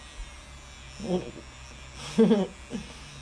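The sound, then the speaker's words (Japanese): A small, newly unboxed vibrator, just switched on, hums with a steady, even electric buzz that runs unbroken through the whole stretch, fairly quiet, while a person makes a few brief murmured sounds over it. “まあ普通の耳にバイブですね”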